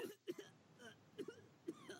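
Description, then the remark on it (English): Someone coughs and gags in a quick series of short, harsh, throaty bursts spaced about half a second apart, fairly quiet, with no talking. “Oh, I love that it starts with coughing and gagging.”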